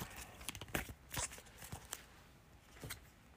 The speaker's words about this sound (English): I got to shuffle that back in there too because that was at the end of the round. So let me shuffle that back in there.